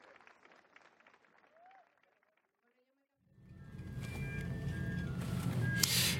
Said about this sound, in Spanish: Un aplauso para nuestros paneles de lujo, por favor.